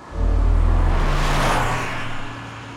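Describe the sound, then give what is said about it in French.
A car speeds past Notre-Dame de Paris in Paris, its low engine drone rising to a loud rushing whoosh as it goes by, then fading away. No voices. “Une voiture roule à vive allure passe devant Notre-Dame de Paris, la conciergerie, continue jusqu'au point Neuf, fait le tour et s'arrête quai des Orfèvres, au numéro 36.”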